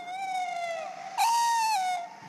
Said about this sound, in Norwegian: Men altså når vi går og hører på sangen, du går og speider etter fuglen. Hva er det med kattugla som gjør deg så fascinert? Jeg syns den er, det er en mystisk fugl. Den, eh, den, er ganske vanlig. Allikevel så er den eh, veldig sky.